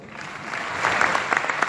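An audience bursts into applause for a father who is present, a dense wash of many hands clapping that swells after the first second and keeps going steadily, with no voices rising above it.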